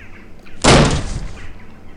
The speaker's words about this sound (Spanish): Pero de pronto lanzó el brazo contra la puerta para propinarle un puñetazo que le arrancó, astillando la pared de madera. La puerta cayó hacia adelante con un ensordecedor estruendo.